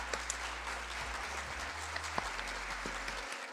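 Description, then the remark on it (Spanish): Applause from a small group, added as background applause in editing: a dense, steady patter of clapping that holds at an even level for a few seconds, with no voices and a faint low hum underneath. “Denme un aplauso, por favor.”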